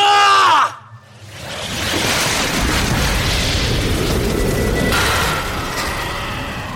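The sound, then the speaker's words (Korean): A cartoon energy-ball blast from a video of Son Goku using the Spirit Bomb (Wongiok) attack: a brief whining, wavering charge-up, a short hush, then a loud sustained roaring explosion that surges once more before easing slightly at the end. “손오공이 두 손을 쭉 뻗어서 둥그런 에너지 덩어리를 만들어 적에게 던지면 적이 소멸한다고?”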